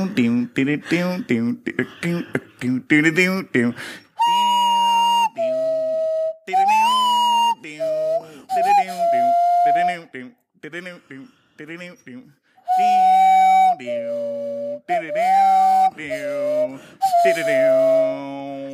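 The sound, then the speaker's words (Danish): A person performs vocal tricks alone: a rapid, twangy plucked rhythm made with the mouth like a banjo, then sustained, wavering whistle-like tones from the nose, fairly loud. “Næse, fløjte og mundbanjo.”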